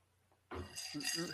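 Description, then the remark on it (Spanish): Ice cubes clink and rattle against a drinking glass holding a Jack and Ginger, a short burst of bright, fairly loud clinks after a quiet start, with some low murmuring underneath. “como no te vas a enfermar con tantos hielos”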